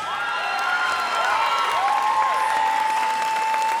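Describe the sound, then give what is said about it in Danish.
A crowd of local fans claps and cheers steadily throughout, with whistles and shouts rising above the dense applause, sounding lively with no speech over it. “Der er altså nogle lokale fans her, kan man høre.”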